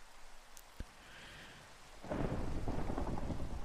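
Steady rain patters while a sharp crack of thunder snaps early on, then a deep rumbling roll swells and sustains loudly, filling the soundscape of a storm.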